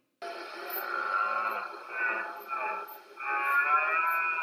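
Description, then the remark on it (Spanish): A huemul (South Andean deer) of Chile calls in a drawn-out, moaning voice, somewhat cow-like, swelling and fading in several pulses over a few seconds, clear with no talking. “Parece un poquito a una vaca, ¿cierto? Pues ese es el sonido del huemul.”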